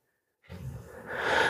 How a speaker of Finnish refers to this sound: Me ajattelen nyt, että tuo vieressäni kuorsaava koira muuttuu kaniksi. No ei se muutu.